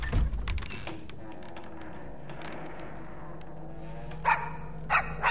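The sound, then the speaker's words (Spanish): A dog barks in a quick cluster at the start, then a low steady hum fills a quiet stretch before a few more short, sharp barks come near the end. “¿Cómo te has metido ahí, perro tonto?”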